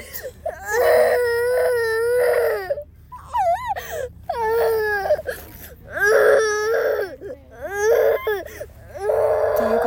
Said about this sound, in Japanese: すいません先ほどですね長尺ライブをさせていただいたんですけれどもちょっとねこの娘の大号泣が始まってしまってですね急に終わることになってしまいました